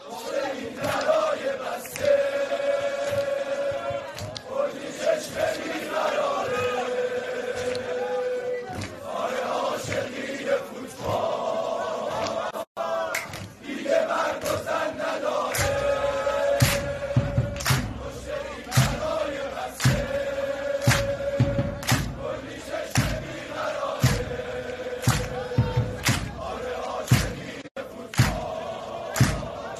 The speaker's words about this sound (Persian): هواداره ملوان حالا شعار خیلی قشنگی و سر دادن در حمایت حضور خانم‌ها توی استادیوم ها اول تشویق هواداری ملوان رو میشنویم